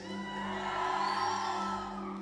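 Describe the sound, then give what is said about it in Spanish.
At a church service, a large crowd cheers and whoops in a sustained roar, steady and fairly loud for a couple of seconds, with individual shouted voices, including a young man's shout, rising out of the mass. “Sí, no, no, vi que un muchacho gritó, ¿qué te pasa?”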